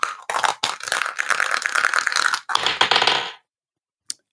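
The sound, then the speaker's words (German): A twenty-sided die rattles and tumbles across a hard surface for a few seconds of busy clattering, then stops; after a brief silence comes one small click. “es ist ein 20-seitiger Würfel”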